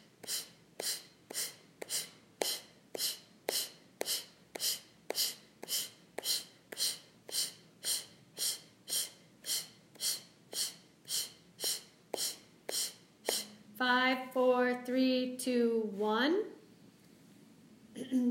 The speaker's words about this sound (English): Every exhale is forceful, every inhale is automatic. Take a deep breath, that's okay. it's an oxygen cocktail. And then exhale all the air out.